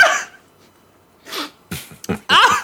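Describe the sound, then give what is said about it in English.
Someone spits out a foul-tasting jelly bean they bit through, sputtering in a series of sharp, breathy bursts, fairly loud, with a short pause before several rapid spits and a final forceful one. “I bit through it and spat it straight out on reflex.”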